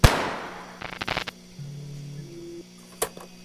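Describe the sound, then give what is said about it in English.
A single sharp pistol gunshot from the drama Warning, written by George Plank, cracks out loudly and rings off quickly, followed by some faint rattling, a low humming tone, and a second, softer snap near the end. “Because it sounded like I just shot you.”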